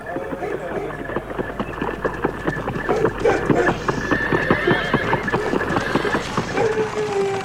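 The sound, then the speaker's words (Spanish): Horses whinny over a steady, rapid clip-clop of many hooves, the clatter dense and continuous, with the neighs rising and trailing off throughout. “Dile a tu marido, el camarero, que me ayude con los caballos.”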